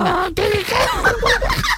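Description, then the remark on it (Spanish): A parrot squawks and chatters in a quick run of shrill, warbling calls, fairly loud, with no pause for nearly two seconds. “Oye, ah, oh, que ha venido el loro.”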